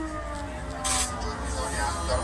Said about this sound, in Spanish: Horas después, las sirenas sonaban sobre las ciudades, alertando a todos los residentes.